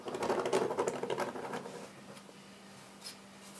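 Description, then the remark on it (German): Longer fingernails scratch rapidly and busily across a wooden tabletop for almost two seconds, imitating a scratching sound, a dry clicky rasp, then stop, leaving a quiet hum and one faint tick. “Ich habe hier einen Holztisch ja. hier. Das war halt wirklich so. Ich habe jetzt auch längere Nägel, allerdings nicht so spitz wie die Hand, die ich gesehen habe.”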